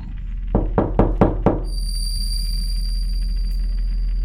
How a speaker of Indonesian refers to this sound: Saya mencoba kembali tidur. Tapi lagi-lagi ketukan itu kembali terdengar.